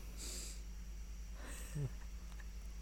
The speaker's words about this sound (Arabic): هو تثاوب